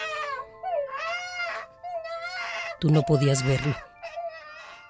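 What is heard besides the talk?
baby crying and wailing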